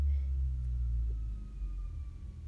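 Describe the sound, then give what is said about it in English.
An emergency vehicle siren wails faintly in the background, its steady tone drifting slowly downward, set against a heavy low rumble of traffic or engine noise. No one speaks. “Do you guys hear the sirens in the background?”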